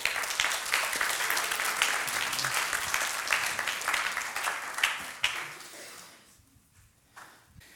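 A crowd applauds steadily, a dense wash of many hands clapping at once, holding strong for several seconds before thinning out and fading away toward the end, welcoming a worship minister who is coming up to speak at a church gathering.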